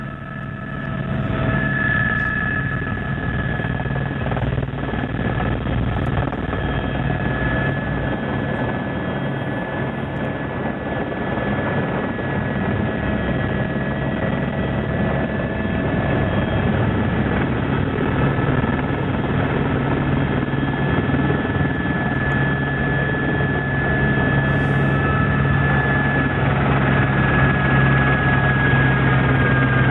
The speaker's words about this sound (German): Und ich würde euch hier mitnehmen, mit unserem Helikopterpiloten Matthias Reuter. Und jetzt fliegen wir in so eine Schneise an.